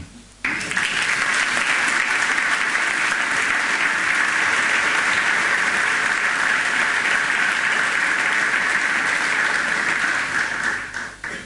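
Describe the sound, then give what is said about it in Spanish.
An audience applauds the Lord, breaking into loud, sustained applause that starts abruptly and holds steady as a dense wash of clapping for about ten seconds before tapering off. “Puedo aplaudirlo al Señor.”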